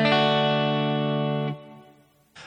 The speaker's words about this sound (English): All right, so I'm in the key of D and I'm playing the chords D, then D major 7, then D6, and then I return to D.